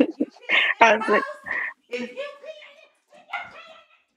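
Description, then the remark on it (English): A dog waiting to be let out through a door barks and yips several times in short, irregular bursts, loud, with some whiny, vocal tones mixed in between the barks. “Let me let the dog out real quick.”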